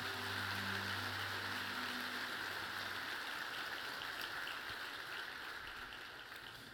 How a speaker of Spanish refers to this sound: Ahora dale un fuerte aplauso al Señor.